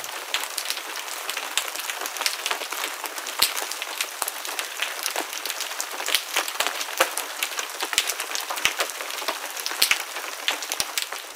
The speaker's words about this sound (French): je pense que si vous avez déjà mis votre tête sous l'eau, vous l'avez entendu, mais vous êtes peut-être dit que c'était du bruit de fond, et en fait c'est tous les invertébrés qui font ce bruit-là. Alors on écoute ce crabe.